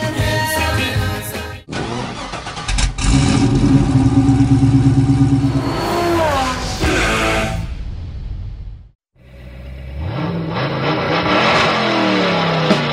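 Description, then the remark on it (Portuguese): A loud Chevrolet 409 V8 car engine revs hard, its pitch climbing and falling through several throttle bursts, cuts out briefly, then roars back with another rising rev. “O 409 era um dos favoritos dos Hot Rodders do início dos anos 60”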